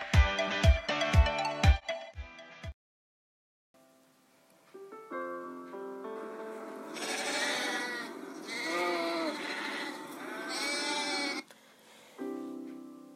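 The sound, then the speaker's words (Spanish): Several sheep bleat in a green meadow in overlapping, wavering cries, some louder than others, after a short burst of rhythmic pulsing tones and a brief silence. No one speaks. “muchas ovejas en un prado verde y hermoso, guiados por un pastor.”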